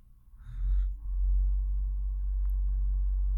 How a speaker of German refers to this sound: Nicht wundern, wenn ihr gerade Geräusche hört, die Müllabfuhr fährt gerade vom Haus lang und denkt sich, komm, jetzt flexen wir ein bisschen mit unserem Motor.